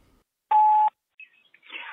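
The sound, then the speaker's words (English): A single loud electronic phone beep lasting under half a second, followed by faint crackly chirps and line noise, like a voicemail message starting to play back. “I guess before we give our thoughts, should we listen to this voicemail?”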